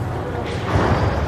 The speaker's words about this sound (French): C'est le son de la chaîne de tri installée à Chagny en Bourgogne. Elle sépare les déchets organiques des ordures ménagères pour les convertir en biogaz.